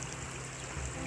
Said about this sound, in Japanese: そんな暑くなる前に涼しいうちに朝散歩をしようと思ってまた川沿いを歩いています川の音や鳥の鳴き声が聞こえるでしょうかここは私が一番お気に入りの場所ですゆっくりゆっくり鳥の声と川の音を聞きながらこちらを録音しています